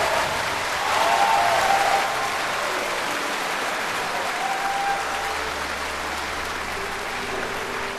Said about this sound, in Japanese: 最終幕平和の参加が終わると観客たちはみんな立ち上がり熱狂的な拍手はいつまでも劇場のホールに響きました